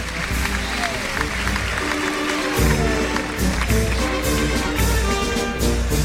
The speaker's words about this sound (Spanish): Fuerte ovación la que se está llevando Daniel Luque.